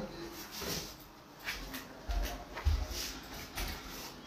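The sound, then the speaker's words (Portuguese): A cat bumps and paws at a door, making a few soft, muffled thumps at irregular intervals, faint against a quiet room background. “Só um minutinho, tem um, tem um gato batendo na porta aqui, pega aí.”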